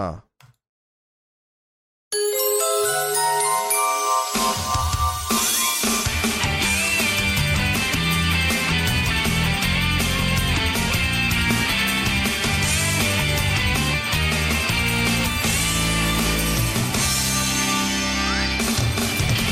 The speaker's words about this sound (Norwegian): Så var det der den Sabrina-serien kom. Jeg har introen til eh, Sabrina Teenage Witcher. Vil dere høre den?